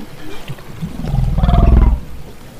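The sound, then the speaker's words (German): A deep, rumbling whale call swells underwater, a low grunting moan with a raspy, pulsing texture that builds over a second or so and then fades. No one speaks. “Sie quieken, sie brummen, sie grunzen öfters, als sie es in früheren Jahren gemacht haben.”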